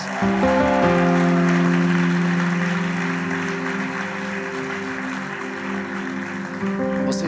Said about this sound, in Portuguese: Você, Vox Família, sabe o que fazer. Uma salva de palmas para os nossos visitantes.